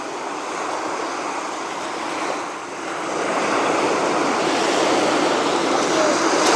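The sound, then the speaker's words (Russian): Loud, steady roar of very large sea waves washing onto the shore, a continuous rushing wash that dips briefly then swells again, with no voices. “Итак, я вышел на берег моря, чтобы поразмышлять о судьбах российского кино.”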